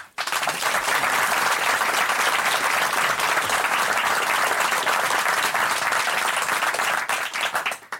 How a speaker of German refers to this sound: Ihr Applaus